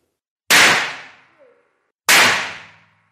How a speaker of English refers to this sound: What happened then was a process called detonation, and it proceeds through a shock wave. In fact, it's a supersonic shock wave that travels through the nitroglycerine and causes the chemical reaction to happen.